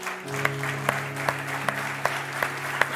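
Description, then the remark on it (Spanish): An audience applauding loudly for God during a worship service, dense sustained clapping with sharper accents landing in a steady beat about twice a second, over a low held tone underneath. “¿Por qué no le damos un aplauso fuerte a nuestro Dios?”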